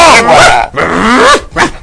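A dog snarls and barks aggressively in three loud bursts, its growling rising and falling in pitch with brief gaps between, as it attacks.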